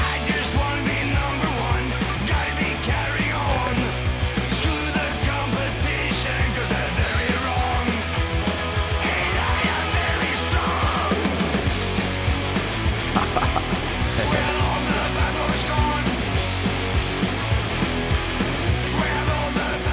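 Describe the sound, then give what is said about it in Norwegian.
Loud, dense rock music with a driving bass line and thick, distorted band sound plays steadily for the whole stretch, with no talking over it. “Jeg bruker jo å spille litt eh, av musikken eh, gjestene mine driver på med, så vi må få en liten smakebit på fra siste albumet, det her, da.”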